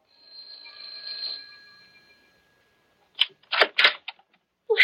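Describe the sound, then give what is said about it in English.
The doorbell of Professor Jarman's house just off the college campus rings on a September evening: a single bright bell whose metallic tone slowly fades over about two seconds, followed by a few sharp clattering bursts like a door being handled. “that evening in September when I rang their bell.”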